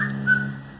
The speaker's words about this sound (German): Das war mein Handy. Ich mache das mal auf lautlos.